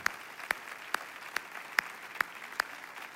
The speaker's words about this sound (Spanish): Yo quiero que ahí en cada sede den, una, den un aplauso a sus pastores de sede. Quiero que les honren.